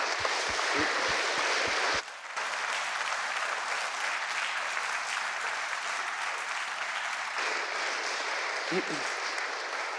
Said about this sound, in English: Um, and finally, can we just have a massive round of applause